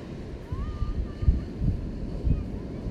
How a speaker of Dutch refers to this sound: Dan hoor je. Ik ben benieuwd of je de zee ook hoort. Dat is zo'n kalmerend geluid. Die zee, die oerkracht van het water. Levenskracht.